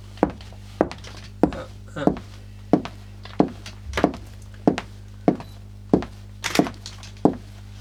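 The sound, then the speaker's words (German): Steady footsteps in normal shoes on a hard floor, about a dozen dull thudding steps at an even walking pace, over a low constant hum. “Ja, natürlich mit, mit, normalen Schuhen hört man das schon auch.”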